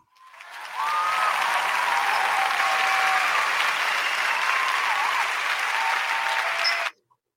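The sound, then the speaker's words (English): A crowd bursts into applause, swelling quickly to a steady, dense roar of clapping with a few faint whistles, holding for about six seconds before cutting off abruptly. “we'll we'll get you some applause here coming up as soon as I can locate it.”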